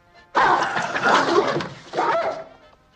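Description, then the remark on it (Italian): A dog barks and snarls loudly in two harsh, noisy bursts, the first longer than the second, with no one speaking. “Aveva detto che il suo cane non mordeva.”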